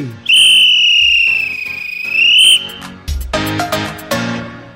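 A man blows a small whistle in one long, loud, shrill blast held steady for about two seconds, then cut off and followed by a short, busy burst of music-like sound.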